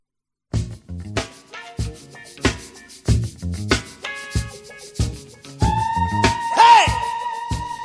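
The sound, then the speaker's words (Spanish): Punchy, rhythmic soul music from the trailer for Quentin Tarantino's Django, with tight drum hits and a groovy bass line; a sustained horn-like tone swells in near the end, topped by a brief, sharp wailing vocal cry. “Lo que sí sabemos es que eh, en el tráiler suena esta música.”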